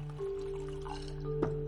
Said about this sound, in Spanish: Ahora llena una petaca.